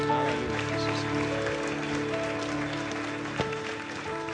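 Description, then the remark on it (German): An audience claps steadily throughout, a dense, sustained wash of applause from a large crowd, with a soft held keyboard chord droning underneath. “Lasst uns Jesus mal einen großartigen Applaus geben.”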